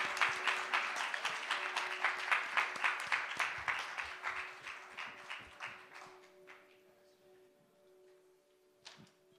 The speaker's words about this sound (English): applause for our kids.